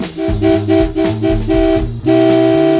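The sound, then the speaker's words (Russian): Loud car horns honk on the road in a rapid string of short overlapping blasts, then one long, sustained blare to finish, with no one speaking. “Совершенно верно, это сигнал.”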